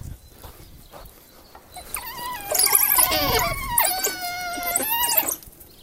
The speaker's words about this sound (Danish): Nu kan I begynde at høre hundene hernede.